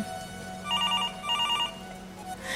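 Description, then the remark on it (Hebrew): A telephone rings in a simple rented room, number 14, at midnight while it rains outside, in two short electronic bursts of rapid trilling tones, each lasting about a second with a brief pause between, over a steady low background hum. “אני מרימה את השפורפרת, אין אף אחד על הקו.”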